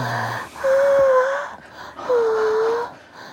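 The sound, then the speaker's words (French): Two breathy, drawn-out moans of orgasm, each lasting about a second, separated by a short gasping breath; fairly loud, with no speech. “Et aujourd'hui, on va écouter le son de l'orgasme. Ou plutôt les sons de l'orgasme.”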